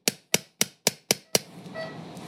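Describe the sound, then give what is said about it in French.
Six sharp, evenly spaced metallic hammer taps ring out clear, as a small surgical hammer drives an anchor into a tunnel made in bone under the lateral epicondyle of the humerus during elbow surgery, followed by a faint lingering hum. “nous faisons rentrer l'encre à l'intérieur du tunnel grâce au marteau.”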